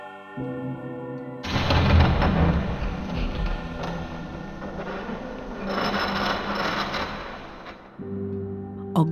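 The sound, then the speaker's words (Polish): A huge wooden gate covered in strange bas-reliefs, at a deserted castle, creaks and grinds wide open in one long, loud, rasping groan lasting several seconds, framed by a low sustained tonal hum before and after. “ogromne drewniane wrota pokryte dziwnymi płaskorzeźbami otworzyły się na oścież.”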